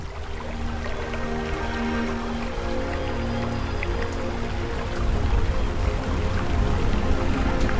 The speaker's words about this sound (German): Selbst die Tierwelt ist schweigsam, bis auf ein paar unwillige Laute und nichts als Regen, Wind und das Rauschen der Blätter rundherum ist zu hören.